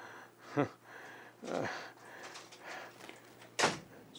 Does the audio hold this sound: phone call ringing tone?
no